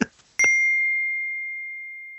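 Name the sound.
glasses clinking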